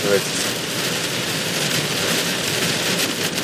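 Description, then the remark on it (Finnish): Heavy rain pours down on a car during a drive in a loud, continuous, dense hiss that stays steady throughout, with no breaks or distinct individual drops standing out. “Hillitön, hillitön meininki. Aivan siis niinku piiskaa niinku jostain niinku...”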